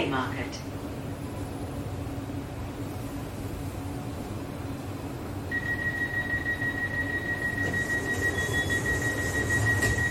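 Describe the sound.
Steady rumble and rattle inside a moving city tram on a main street in Sydney, Australia, on a tram line opened in 2020, with a thin high-pitched whine rising in about halfway through and continuing to the end as the ride picks up, faint voices underneath.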